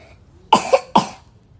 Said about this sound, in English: oh my, our cough is never going to go away, is it?